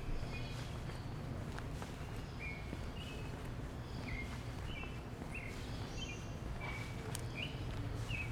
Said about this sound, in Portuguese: Sabiá cantando, né?